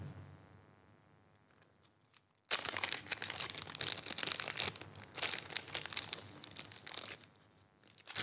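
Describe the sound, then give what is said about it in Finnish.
After a quiet start, a burst of crisp, crinkling rustle begins and continues for several seconds as shiny red flashabou fly-tying material is handled to form the throat of a fly. The sound is fairly loud and uneven, with no talking. “Kurkuks tämmöistä punasta flasabouta.”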